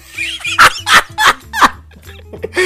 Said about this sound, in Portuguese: Olha meus cachorros latindo aqui, porque chegou a. Falando nisso, chegou a faxineira aqui. Agora eles vão enlouquecer.